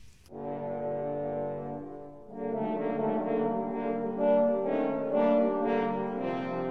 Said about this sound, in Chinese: 那么圆号的声音呢，代表的就是狼啦。